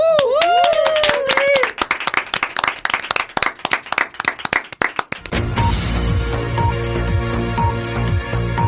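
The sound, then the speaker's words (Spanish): A burst of lively applause from a small group for fellow university students who worked hard, with a few whistles or cheers at the start, lasting about five seconds before a music jingle takes over. “Un aplauso para estos compañeros que se lo han currado.”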